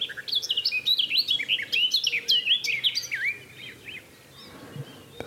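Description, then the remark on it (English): A garden warbler sings a rapid, rich warbling phrase of tumbling notes for about four seconds, clear, then it fades into quiet outdoor background. “Inside a cattle trough because there's a there's a garden warbler.”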